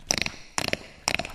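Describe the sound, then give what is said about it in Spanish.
A voice imitates cracking bones with three quick bursts of sharp, crackling mouth clicks, spaced about half a second apart, fairly loud, with no talking. “Y también este como imitar, no sé, sonidos ambientales, no sé, una gota cuando te truenan los huesos”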